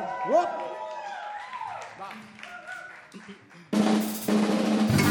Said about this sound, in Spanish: Un aplauso a la edad y el perro Lu que nos acompaña. ¡Aplauso!